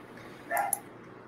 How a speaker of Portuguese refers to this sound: Eu tô me montando aqui porque esse cachorro não para